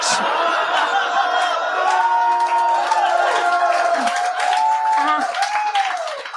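A large live audience applauds steadily for several seconds, dense clapping layered with loud whoops and cheers that rise and fall, staying full before easing slightly at the end.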